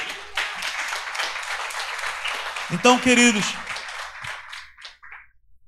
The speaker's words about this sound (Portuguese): Em nome de Jesus, aplauda o Senhor aí.